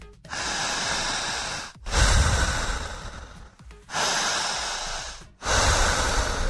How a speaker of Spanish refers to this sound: respire por la boca jalando el aire hasta el pecho, el estómago o el vientre. Más o menos así.